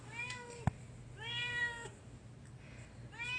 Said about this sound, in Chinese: 这是回到家热烈迎接我的喵喵声。